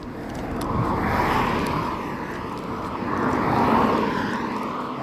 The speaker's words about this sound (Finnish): autoja menee jonkun verran ohi, kun täällä väkeä, jotka on menossa pienelle karhunkierrokselle. Niin kuuluu.